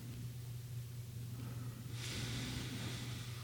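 A soft, airy breath drawn through the nose, rising as a hiss after a quiet stretch and holding steady to the end, over a constant low hum.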